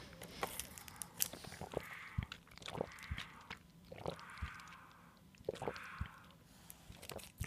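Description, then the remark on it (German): Slurping through a straw from a drink carton: a series of short, wet sucking pulls at a steady rhythm, with small squishy clicks between them and no talking. “Es klingt heute merkwürdig. Ich habe so ein Trinkpäckchen, es wird nicht gut klingen.”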